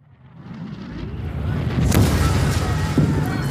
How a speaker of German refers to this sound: Vor uns rollte und donnerte ein Artilleriefeuer von nie geahnter Stärke. Tausend zuckende Blitze hüllten den westlichen Horizont in ein Flammenmeer.